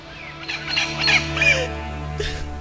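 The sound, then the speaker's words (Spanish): A parrot, hurt after being accidentally squashed, lets out a few harsh, raspy squawks in quick succession, fairly loud, then goes quiet over a steady low background hum. “Y pasó un accidente y le, y le apachurramos a su perico y vean cómo se puso.”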